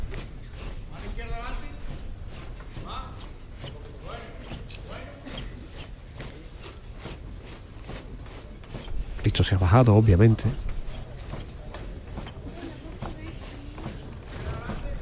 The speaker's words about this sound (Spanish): Dado la orden para que el paso avance, que está el capataz dentro del templo. El sonido de las zapatillas de los costaleros todavía en la acera